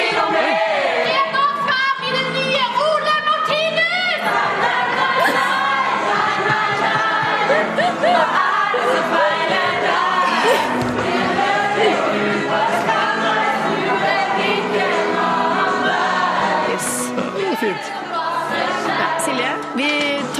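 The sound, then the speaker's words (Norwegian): A large crowd roars continuously, many voices shouting and cheering together at a steady, loud level for the whole stretch, with no single voice standing out. “Masse folk. Hva er det du driver med?”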